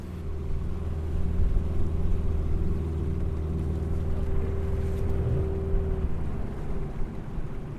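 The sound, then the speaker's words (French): A motorized dugout canoe's outboard engine drones steadily on the Ogoué river, near the first Protestant mission at Andande, a continuous low rumble with a humming tone and faint water wash, with no voices throughout. “On a arrêté le, moteur euh, de notre pirogue pour pouvoir stationner face à la première mission euh, protestante, celle d'Andande, où euh, Schweitzer est arrivé en 1913 par l'Ogoué.”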